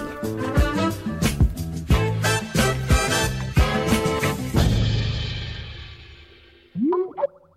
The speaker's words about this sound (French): Ça c'est le bruit que fait une notification quand un nouveau message arrive sur votre téléphone pro dans la journée.